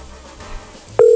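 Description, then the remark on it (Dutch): A loud, steady telephone tone suddenly cuts in after a moment of quiet low background noise and holds unbroken to the end, as a phone calls someone back. “Gaat die nou wel opnemen? Of bel ik nou heel iemand anders terug?”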